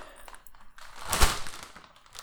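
Potato chips crunching: a few faint crackles, then one loud, dense burst of brittle crunching that fades into softer crackle. No one speaks.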